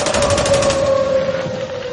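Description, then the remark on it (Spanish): A rapid volley of sharp gunshots as soldiers execute union leader Rosendo García by firing squad cracks loudly over the union's siren, a steady, droning wail that keeps sounding after the shots fade. “Los soldados atraparon a Rosendo y ahí mismito lo fusilaron.”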